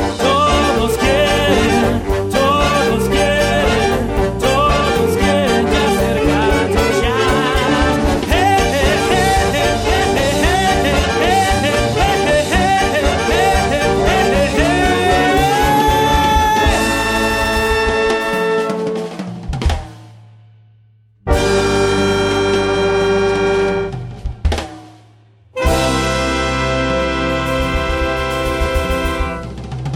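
Loud, dense jazz music played by a children's big band continues with rich sustained harmonies and busy rhythmic motion, then cuts out briefly twice near the end before resuming. No one speaks.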